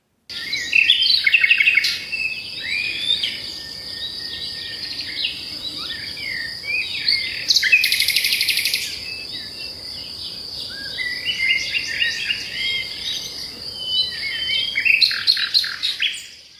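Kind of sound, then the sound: bird, nightingale singing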